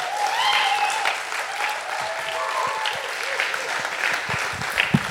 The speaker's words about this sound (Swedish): Det gör ingenting om du applåderar lite. Jag bara njuter av det, vet du. Det är fantastiskt.